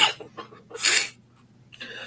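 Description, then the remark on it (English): A single sharp, forceful cough bursts out, preceded by a few short breathy sounds and followed by a softer exhale. “That was a very legitimate cough.”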